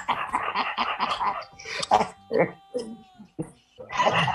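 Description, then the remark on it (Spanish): Harsh, repeated hacking coughs from someone trying to clear something stuck in their throat, coming in uneven bursts with short pauses, fairly loud. “Resulta que algo, algo se atoró aquí en el gañote, padre, más, más, que, más que tos, hombre.”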